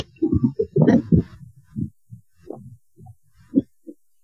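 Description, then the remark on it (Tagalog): An electric fan, used as a blower in hot weather, blows straight into a microphone, making uneven low rumbles and thumping buffets of wind that surge and fade irregularly, with no one speaking. “Electric fan ko, ano kasi blower ang ang, eh, alam niyo ba kung gaano kainit?”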